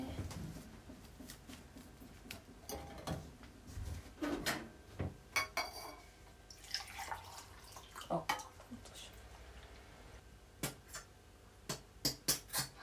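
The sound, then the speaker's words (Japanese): Handling sounds: a jar holding black tea leaves being opened with a twist and scrape, closed again, then set down with a few sharp clinks and knocks, with quiet low rustling between. “紅茶飲む今は紅茶の茶葉が入った瓶を開けた音閉めた音置いた音うるさいね”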